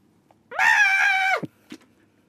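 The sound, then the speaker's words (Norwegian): A person lets out a single loud, strained screech lasting almost a second, imitating a penguin's call, with a brief grunt trailing off afterward. “du skal få lov til å starte denne gangen med å lage en pingvinlyd.”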